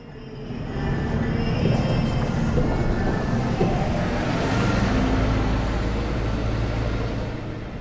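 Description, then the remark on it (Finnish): Steady rumbling ambience of a moving metro train in Islamabad, Pakistan, with a low continuous drone and rattling from the cars, fading in at the start and holding at a fairly loud level throughout. “Vielä hetkeksi Islamabadin metroon, siellä muistutetaan Kasmerin kansallispäivästä.”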